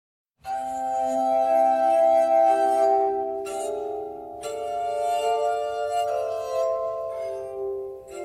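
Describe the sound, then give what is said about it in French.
A glass armonica plays sustained, shimmering tones that blend into soft chords, with notes overlapping and swelling in a slow melodic line, pure and bell-like, with no voices. “L'armonica de verre, l'instrument qui rend fou”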